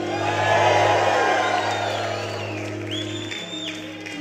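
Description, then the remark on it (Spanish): A large crowd erupts in loud, sustained shouting and cheering, giving a shout of victory to the Lord, with scattered whoops rising above the roar before it gradually eases a little, the collective noise continuous throughout. “Dele un grito de victoria al Señor.”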